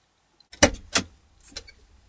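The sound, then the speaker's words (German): A car door clunks open and shut as a lawyer gets out of her car outside her client's house, with a couple of sharp knocks followed by a softer final thud and a faint rattle, no voices present. “Schweren Herzens stieg Barbara aus ihrem Auto und klingelte an der Haustür ihres Mandanten.”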